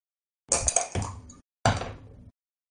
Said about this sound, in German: Du schaffst es, die Tür ziemlich leise zu öffnen